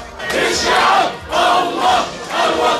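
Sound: football supporters chanting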